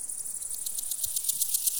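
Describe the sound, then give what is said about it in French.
High, buzzy grasshopper chirping pulses steadily and continuously, a dense rhythmic trill at moderate volume with no voices, just a faint low rumble underneath. “Ah, il y a de la sauterelle ici!”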